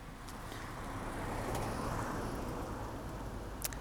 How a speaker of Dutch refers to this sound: komen weer even wat auto's op. Het is eh, druk hier op het uh, landweggetje in het buitengebied.